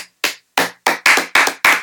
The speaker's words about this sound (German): Wollen wir eigentlich, wollen wir eigentlich ganz kurz, ich hab's mir überlegt, äh, wollen wir eigentlich mal ganz kurz einen Applaus machen?